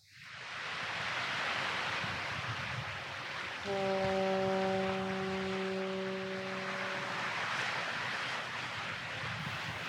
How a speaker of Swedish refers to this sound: Mistluren tutar över Öresund